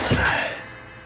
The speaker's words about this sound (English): You can still hear it. That, that's her breathing? Yes.